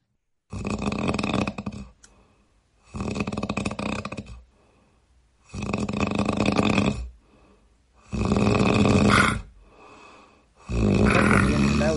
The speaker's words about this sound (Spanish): Alejandra Acosta nos mandó los ronquidos de su ….